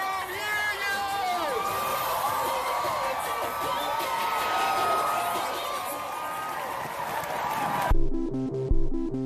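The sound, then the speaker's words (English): A large outdoor crowd at the Pride Parade in Chicago, celebrating the city's LGBTQ communities, cheers and whoops continuously, with whistles and overlapping shouting voices filling the street for several seconds before the noise cuts off abruptly and music begins. “Every year, hundreds of thousands of people take to the streets of Chicago to celebrate our city's LGBTQ communities. It sounds something like this.”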